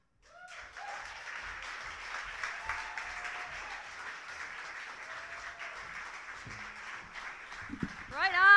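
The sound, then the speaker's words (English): Sustained audience applause at a competition while the judges work out scores, with dense, steady clapping and scattered cheers, holding an even level for several seconds before a voice starts speaking loudly over it at the end. “Let's keep that applause going while the judges are doing that number voodoo that they do.”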